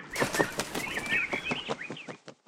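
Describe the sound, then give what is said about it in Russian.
Rapid wingbeats of swallows taking off, a quick run of soft flutters lasting a couple of seconds, with light twittering chirps woven through and fading toward the end. “Ласточки пообещали выполнить его просьбу и полетели своей дорогой.”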